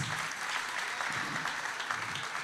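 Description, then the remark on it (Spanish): Steady audience applause fills the moment, a dense, even wash of many hands clapping with no breaks, bright and moderately loud throughout. “Ay, Si le va a dar el aplauso.”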